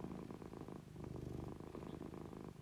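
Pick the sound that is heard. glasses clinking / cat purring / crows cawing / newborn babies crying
cat purring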